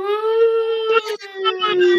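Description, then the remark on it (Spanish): A voice imitates an ambulance siren with a loud, sustained wailing tone that holds a fairly steady pitch, dipping briefly midway, with rough breathy noise mixed into the second half. “Y ¿cómo le hacen las ambulancias?”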